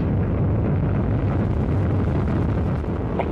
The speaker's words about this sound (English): Go for main engine start. 1, 0, and liftoff of the Atlas V rocket with Cygnus and the SS John Glenn, extending the research legacy for living and working in space.